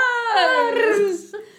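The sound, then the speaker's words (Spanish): A female dog sings along, letting out one drawn-out, tuneful howl that slides downward in pitch, fairly loud, followed by a brief fainter whine at the end. “La perra está cantando, le gusta.”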